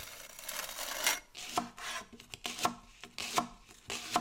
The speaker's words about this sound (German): Sie zieht die überstehenden Reste mit dem Spachtel ab. Ist es noch uneben? Sie korrigiert erneut.